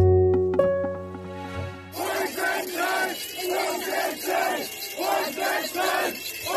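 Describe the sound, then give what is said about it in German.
A large crowd chants "Volksentscheid, Volksentscheid" over and over in a steady, loud rhythm, following a short musical sting at the start, as Berlin's then mayor Franziska Giffey tries to give a May Day speech. “Mai eine Rede halten und bekam Volksentscheid, Volksentscheid aus dem Publikum zu hören.”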